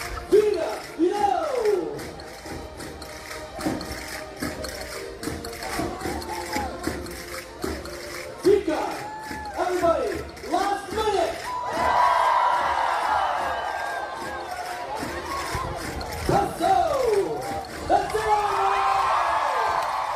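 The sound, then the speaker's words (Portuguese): An enthusiastic crowd at the Centro Português de Mississauga, Canada, cheers steadily for about twenty seconds at a Guinness record event for the largest Portuguese folk dance, the Vira. Many overlapping voices and repeated rising and falling whoops are heard, and the noise swells and grows louder toward the middle and the end. “O Vira juntou uma multidão entusiasmada.”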